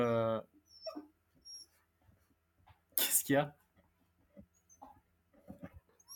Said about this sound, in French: parce que mon chien, il a entendu le chien et du coup, il est en train de chercher comme ça.